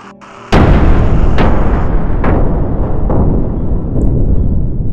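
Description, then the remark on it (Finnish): A generator on asphalt blows up with a sudden loud, deep boom, followed by a sustained heavy roar with a few more cracking bursts rumbling through it as its container starts to smoke and catch fire. No one speaks. “Aggregaatti räjähti ja kontti alkoi savuttaa.”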